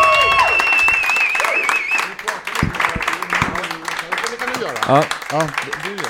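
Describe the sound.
An audience applauds with dense, steady clapping that carries through the whole clip, while a high whistle rings at the start and voices call out over the applause.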